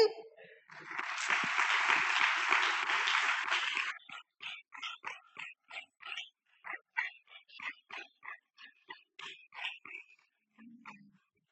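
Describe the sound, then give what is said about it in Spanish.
A church audience breaks into a loud, dense burst of applause for a few seconds, given to the whole church and to the Lord, which then thins into scattered, uneven claps that gradually die away. “Y me gustaría dar un aplauso a toda la iglesia, amén, a todo lo que hemos estado sirviendo durante todo este año y darle un aplauso al Señor por su bondad y por su fidelidad.”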